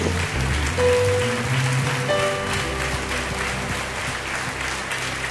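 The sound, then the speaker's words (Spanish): An audience at a Christian worship service applauds for God steadily for several seconds, a dense wash of clapping at a constant loud level, with faint sustained musical tones underneath. “Da un aplauso fuerte a nuestro Dios.”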